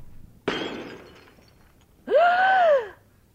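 A single sharp crash as a flowerpot, thrown onto a landlord's head, smashes, its noisy breaking sound trailing off over about a second, followed after a pause by a loud, drawn-out groan that rises and falls.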